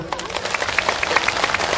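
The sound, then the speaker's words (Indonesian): A crowd applauds Pak Prana, the mayor, with dense, irregular clapping that fills the whole moment at a steady, moderate loudness, continuous rather than building or fading. “Makanya pemimpin ini, maka saya senang tepuk tangan untuk Pak Prana.”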